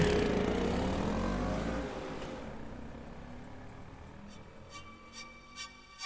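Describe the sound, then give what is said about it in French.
A loud engine rumble fades as two motorcycles slow down on Route 114 around 3:30 pm and, instead of continuing, turn onto Dove Road, then a quieter idling hum with a few short crunching bursts near the end. “Une minute plus tard, deux autres motos se font entendre. Elles ralentissent et, au lieu de continuer leur chemin, elles s'engagent au Dove road”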